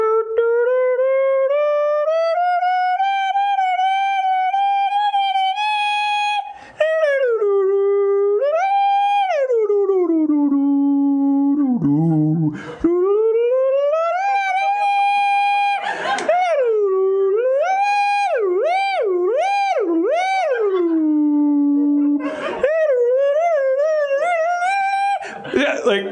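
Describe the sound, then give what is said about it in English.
A man holding a prop clarinet to his lips loudly imitates a clarinet played badly, honking up and down scales in long wavering tones with shaky warbles and sudden squawking slides, almost continuous. “And so he put the clarinet to his lips, and I was like, okay, here we go like blow my mind or confirm what I suspect.”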